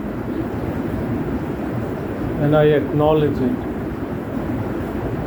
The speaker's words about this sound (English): This rain is telling you you are there